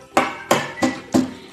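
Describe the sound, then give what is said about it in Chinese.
Four firm knocks on an office door in a steady, even rhythm, each a sharp thud with a brief ring, with no voices around them. “小鸡墩墩敲响了门房：”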